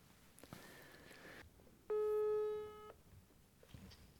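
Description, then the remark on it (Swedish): A single loud, steady telephone ringback tone sounds for about a second while a call is placed to a young woman. A quiet, faint hum precedes it, and the line falls back to near silence after. “vi ringer upp den här tjejen tycker jag.”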